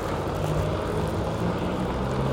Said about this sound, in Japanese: 今ねここはあの雨降ってます雨の音が聞こえてると思います